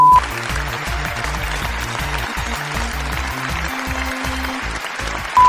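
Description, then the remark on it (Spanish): Sustained applause played on the radio show Pica la Etiqueta on FM La Tribu 88.7, dedicated to listeners, a dense steady clatter of many hands clapping at full volume for several seconds, with no one speaking over it. “Este aplauso es para ti.”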